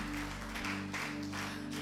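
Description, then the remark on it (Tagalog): An audience claps for the Lord in a steady, dense, continuous wash of applause, with no voices, over a low, sustained droning tone in the background. “Isa pang palakpak para sa Panginoon.”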